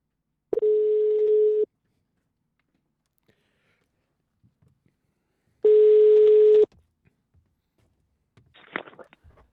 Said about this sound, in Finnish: Tuota, nyt otamme puhelinyhteyden Jyväskylään ja suomalainen mies pääsee kertomaan suhteestaan ….